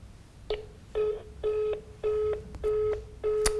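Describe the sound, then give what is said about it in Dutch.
A telephone busy signal on a call to Maarten Rijgersberg of bureau Rauw CC in Rotterdam: a steady run of short, evenly spaced electronic tone pulses, about six in a row, clear, with no voices. “ja, hij, ja, hij is in gesprek, denk ik”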